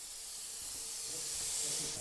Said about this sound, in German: Das ist jetzt Bergwerk-Sound, den wir hier hören. In den Bergwerken sind immer so, von der Pressluft ein bisschen säuseln, weil es ist nicht immer alles dicht.